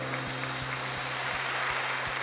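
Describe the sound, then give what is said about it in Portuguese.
A church audience applauding at the end of a prayer: a steady, dense wash of clapping with faint regular beats running through it and a low electrical hum underneath, with no talking. “Vamos dar agora um aplauso, final de oração.”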